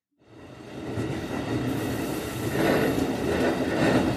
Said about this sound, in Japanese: ここは電車の中です。男の人が電車に乗っています。